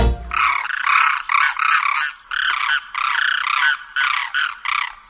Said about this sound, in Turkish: Duyduğunuz turna kuşunun sesi. Göçmen kuşlardan turnanın sesini yakında duyacağız. Boyu bir buçuk metre, kanat açıklığı iki buçuk metre olan bu iri kuş, uzun bacakları ve uzun boynuyla aynı zamanda çok zarif bir kuş.